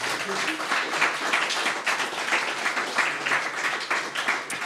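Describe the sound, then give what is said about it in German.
Sustained audience applause, a dense, steady wash of many hands clapping at fairly even loudness for several seconds, with no clear voices standing out. “Einen großen Applaus bitte nochmal.”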